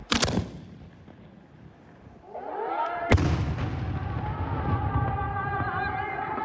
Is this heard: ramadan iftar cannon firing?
yes